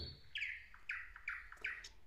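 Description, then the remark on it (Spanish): Birds singing at dawn, a series of four bright, clear chirping notes repeating at an even pace, soft, with no voices over them. “El canto de los pájaros al amanecer.”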